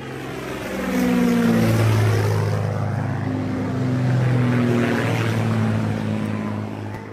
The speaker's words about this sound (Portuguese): Quando ouviu esse barulho, André, de 7 anos de idade, correu para fora de casa para tentar ver de perto o avião que parecia voar bem baixo.